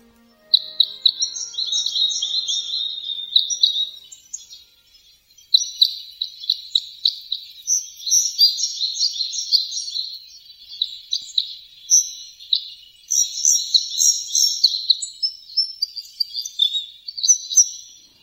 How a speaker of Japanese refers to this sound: 北海道北見市の住宅地に囲まれた公園でイスカの群れに出会いました